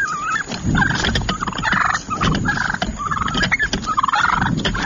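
Several wild turkeys gobble repeatedly and loudly as they come up on people, their rapid, warbling calls overlapping in bursts throughout, with no talking.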